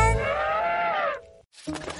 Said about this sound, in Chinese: 伊卡，不好了，公鸡们打起来了，快来帮忙啊！